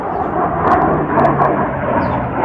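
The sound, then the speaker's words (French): A steady, broad rumbling roar of an airplane passing overhead, fairly loud and continuous with no speech, holding an even level throughout. “Il y a un avion qui passe.”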